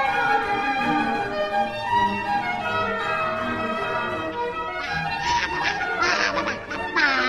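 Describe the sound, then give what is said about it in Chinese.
A swan that has turned into a boat gives a nasal, trumpeting call again and again, loud and brassy with rich overtones, growing into sharper, more insistent honking bursts toward the end. No one speaks. “我想啊，他的意思应该是啊，船上没有装喇叭，所以呢，他靠自己的嘴巴叭叭叭叭。”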